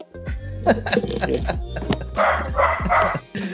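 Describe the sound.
A pet dog barks several times in quick succession, loud, with a short cluster of sharp barks near the end, while people talk in the background.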